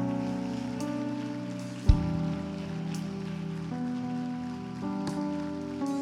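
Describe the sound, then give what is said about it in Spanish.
A church audience claps in a steady, dense patter over sustained music chords that shift a few times, with one brief thump partway through. Nobody speaks. “Vamos, denle un fuerte aplauso, iglesia, a ellos.”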